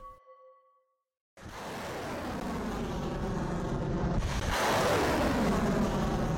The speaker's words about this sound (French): Ce son que vous entendez est celui de tirs de missiles balistiques chinois près du détroit,